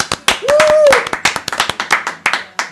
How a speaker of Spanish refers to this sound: Y ojo que hoy día tenemos un nuevo auspiciador, la Casa Planta. Un aplauso. Un aplauso.